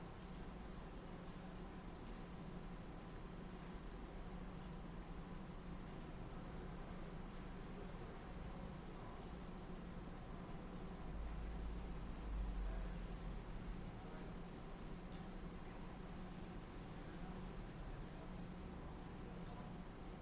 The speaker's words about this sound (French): le son de la pluie, la musique de la pluie